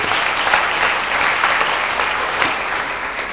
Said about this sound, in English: I, I want to say thank you to the worship team. It, has been a wonderful experience just to, to have that worship. Yeah, give them a hand, would you?